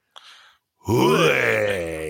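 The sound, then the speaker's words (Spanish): After a short intake of breath, voices let out a loud, sustained roar together, a growling vocal imitation that holds steady and rises slightly in pitch for over a second. “Pero pues no nos podemos ir sin hacer el rugido tradicional.”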